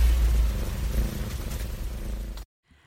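A cat purring, a steady, loud, low rumble with a slightly pulsing texture that cuts off abruptly near the end, leaving near silence.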